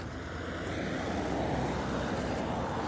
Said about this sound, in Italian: Adesso sentite delle macchine perché purtroppo mi sto avvicinando a dove ho parcheggiato.